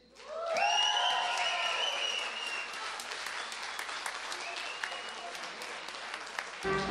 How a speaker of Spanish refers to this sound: En este escenario lucharán de dos a tres caídas los enmascarados del ritmo. Pedimos un fuerte aplauso para el amor y para señor Bikini.